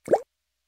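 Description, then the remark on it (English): A single plop of a regular water droplet, short and clear with a quick rising tone, followed by silence. “This is the sound of regular water droplets.”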